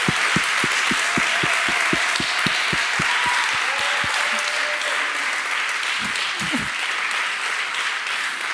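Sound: audience applause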